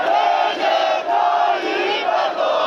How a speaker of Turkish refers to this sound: 10 Kasım'da Anıtkabir avlusunda yükselen sloganlar, tezahüratlar. O görüntüler siyasetin yeni tartışma konusu.